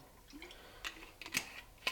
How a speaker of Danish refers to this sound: Så har vi taget, øh, har sat en pande over varmen. Og der hælder vi bare en lille smule olie på.